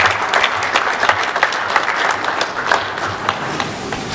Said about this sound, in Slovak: Potlesk.